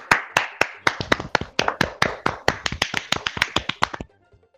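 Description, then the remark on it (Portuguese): A burst of roughly twenty sharp hand claps over about four seconds, quick and slightly uneven in rhythm, crisp and fairly loud, then stopping abruptly into near silence. No voices. “Bate palma eu, viado.”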